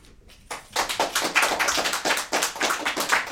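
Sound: audience applause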